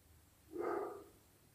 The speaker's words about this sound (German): Oh Gott, der Hund bellt die ganze Zeit, ich hoffe, man hört den nicht.